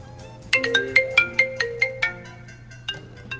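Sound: mobile phone ringtone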